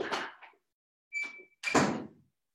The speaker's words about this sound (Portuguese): Eu vou pedir só uma licença para fechar a porta aqui, só um minutinho.